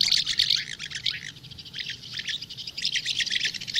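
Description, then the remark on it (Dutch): House martins calling, a busy stream of bright, chirruping twitters in overlapping bursts with brief pauses, steady, over a low background rumble. “Dit zijn inderdaad huiszwaluwen.”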